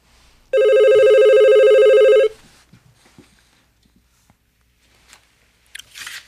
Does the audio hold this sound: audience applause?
no